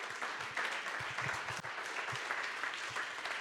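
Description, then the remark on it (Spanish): An audience applauds the name of Christ steadily, a dense wash of many hands clapping at an even, sustained loudness with scattered sharper claps standing out, no voices rising above it. “Aplauda su nombre.”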